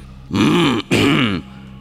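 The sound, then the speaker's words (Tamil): A loud, deep throat clearing by Periya Pazhuvettarayar, a man past sixty, in two gravelly bursts with a brief break between them, rumbling and forceful like a lion's roar. No other sound accompanies it. “பழுவேட்டரையர் இதற்கு மறுமொழி ஏதேனும் சொல்ல வேண்டும் என்று எண்ணி தமது தொண்டையை கணைத்துக் கொண்டார் அது சிங்க கர்ஜனையை போல் முழங்கிற்று”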